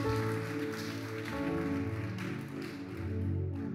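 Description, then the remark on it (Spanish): A crowd of women applauds their husbands steadily for a few seconds, dense clapping that sounds like rain, with sustained musical tones humming underneath. “Mujeres, denle un fuerte aplauso a su esposo, que ha fracasado mucho, pero lo sigue intentando.”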